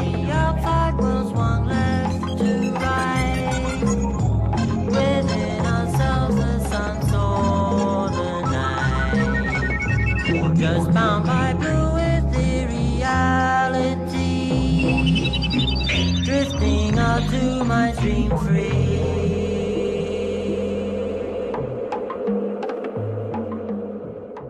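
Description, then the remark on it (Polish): A dense, experimental psychedelic electronic track with a trip-hop feel plays loud and steady throughout, layering throbbing low tones, rising synth swirls and busy percussive textures, with no voices. “niektóre utwory z … przypominają trip hop”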